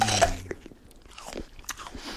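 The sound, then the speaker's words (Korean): A loud crunching bite opens, followed by wet, irregular chewing with several sharp crunches over about two seconds, like someone hungrily munching raw onion. No one speaks. “빵을 훔쳤으면 빵을 먹었고 과일을 훔치면 과일을 먹었고 어떨 땐 정신없이 도망치느라 닥치는 대로 집어온 양파를 씹기도 했습니다.”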